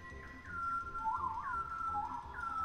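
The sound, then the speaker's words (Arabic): A bird gives an alarm call, the call that usually signals danger or an approaching predator, made here when its female flies away: a series of sharp, whistled notes that slide up and down, repeating three or four times in quick succession, fairly loud, with no talking. “نوع من أنواع الطيور بس يشوف الأنثى تبعته عم تطير وتبعد بصير يطلع الصوت اللي بالعادة بيعبر عن وجود الخطر أو إنه في مفترس جاي”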